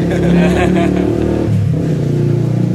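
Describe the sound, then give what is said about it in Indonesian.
A motorcycle engine revs loudly and steadily, its growling pitch rising and dipping across the whole stretch, with indistinct voices faintly mixed underneath. “beberapa suara motor eh, kendaraan kendaraan lain lah ya nah. banyak suara raung raung”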